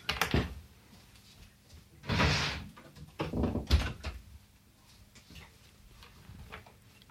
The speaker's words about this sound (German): Und ähm, das, oh du, ich muss hier mal die Tür zumachen.